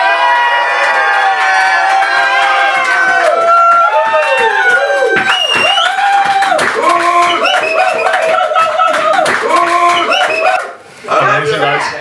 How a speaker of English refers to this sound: Uh, I'd like to hear like a loud a loud noise from the crowd, and then do the. the All right. Catchphrase. So let's. Uh, do loud noises. Scream for me, Gula Villan. Scream for me, Gula Villan.